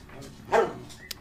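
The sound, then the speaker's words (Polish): A dog named Moli gives one short bark in the middle of an otherwise quiet moment, followed by a faint click shortly after. “Uciekaj, już pies. Już poszła.”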